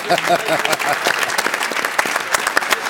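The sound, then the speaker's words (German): A crowd claps steadily, dense overlapping hand claps forming a continuous wash of applause, with a voice or two briefly audible underneath at the start. The studio audience of the WM-Doppelpass show from Munich is applauding a colleague who took part and had his birthday the day before. “Oh, auch ah, das da schicken wir aber nochmal Applaus hinterher.”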